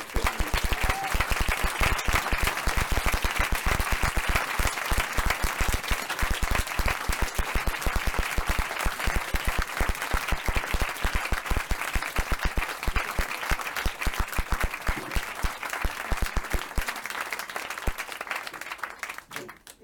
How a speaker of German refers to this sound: Bitte nochmal einen tosenden Applaus für die beiden.